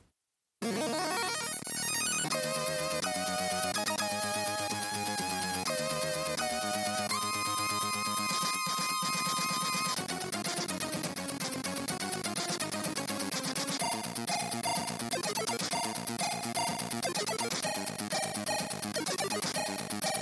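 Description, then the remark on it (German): Bright, buzzy Commodore 64 (C64) chiptune game music with fast arpeggiated synth lines plays at a steady loud level, first without shooting. In the second passage, with the fire button pressed, noisy bursts of shooting sound effects crackle repeatedly over the tune. “Und ich habe hier mal kurz zusammengeschnitten, wie diese C64-Musik klingt, erst ohne Schießen und dann in der zweiten Passage des Stückes, wenn man dann die Schusstaste betätigt und wie das dann klingt.”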